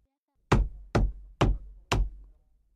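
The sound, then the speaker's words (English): Four solid knocks rap on the wall by the mirror in Christine's dressing room at an even, unhurried pace, clear, each with a short dull resonance fading before the next; no one speaks. “The Persian took Raoul to Christine's dressing room he walked straight to the mirror and began knocking on the wall.”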